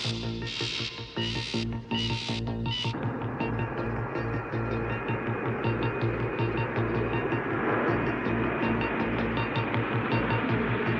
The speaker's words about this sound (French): C'est l'avion du président.